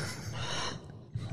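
A person gags, a brief throaty retching burst with raspy, breathy noise that fades and then catches again in a short second heave, with no talking.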